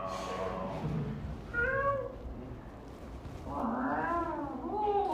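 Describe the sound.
People imitate cat meows: one short, bright meow, then a cluster of longer, overlapping wavering meows from several voices, moderately loud over a low background murmur.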